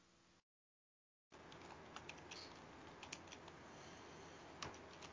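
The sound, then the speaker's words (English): Rapid, uneven clacking of keys on a computer keyboard, steady over a low background hum, after a brief moment of silence at the start. No one speaks. “I hear you typing.”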